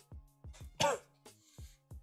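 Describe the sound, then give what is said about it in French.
A dry cough from a person who has a cough, repeated in a quick irregular series of about six bursts, with one harsher, raspier hack in the middle. “mais j'ai toussé parce que vraiment j'ai une toux.”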